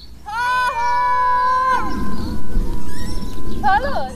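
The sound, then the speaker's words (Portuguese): A long, loud shout from the top of a hill rings out with a sustained pitch, then fades into a hiss of background noise before a fainter, wavering echo returns from the abbey wall at Tihany. “Os gritos lançados do topo da colina fazem ricochete na parede da abadia.”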